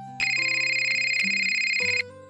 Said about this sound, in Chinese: 林峰刚刚起来，便有电话过来了。